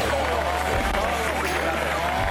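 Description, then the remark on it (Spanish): A crowd applauds to welcome Javier Milei, candidate for the presidency of Argentina, in a steady, dense wash of clapping that holds at an even loudness throughout, with voices mixed in underneath. “Bueno, un aplauso, denle un aplauso.”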